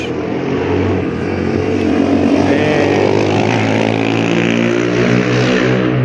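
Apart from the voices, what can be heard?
street traffic noise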